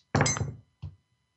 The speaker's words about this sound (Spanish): Y en ese rango están todas las posibles combinaciones que puede haber al tirar unos dados, que le voy a tirar ahorita.